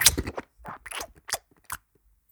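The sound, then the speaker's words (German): Loud chewing with crisp crunching bites, a quick irregular series of sharp bursts that thins out into a few softer crunches before stopping. “Du bist so also einer, der so laut kaut, weißt du?”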